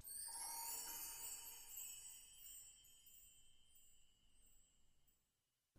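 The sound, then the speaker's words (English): A quick glissando across mark tree chimes, bright, shimmering metallic tinkles sweeping past in under a second, then ringing and slowly fading over several seconds with no voices. “so add in one more instrument that I use a lot, and that's a percussion instrument, and that instrument is the mark tree, um, or the chimes, or whatever you want to call them.”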